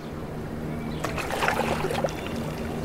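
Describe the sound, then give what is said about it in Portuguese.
A boat moves across water, with a steady low engine hum underneath and splashing, sloshing water rising in the middle before settling back to the drone. No one speaks. The boat is heading early in the morning toward the house of the victims. “Mas logo cedo, no dia seguinte, a gente pegou o barco rumo à casa das vítimas.”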